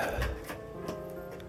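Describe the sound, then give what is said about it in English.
An all-black cat scratching inside a cardboard box: a few irregular, dry rasping bursts over a steady low hum, fairly quiet, with no voices. “So literally, while I'm talking, and you can hear that, you know, scratching in the background.”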